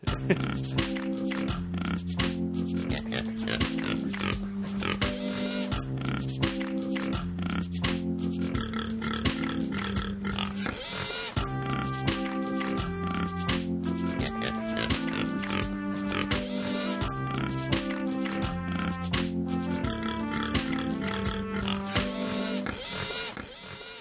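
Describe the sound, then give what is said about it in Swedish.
A bouncy musical jingle with steady beats and bright sustained notes, punctuated by pig oinks and grunts throughout, playing loudly with no talking before cutting off at the end. “Så, Vad sa du om min jingel?”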